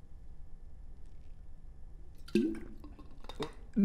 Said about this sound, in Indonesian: Saya minum dulu. Boleh? Saya minta izin minum dulu ya sebelumnya. Oke, okay, ya. silakan. Tolong jangan perhatikan saya sedang minum.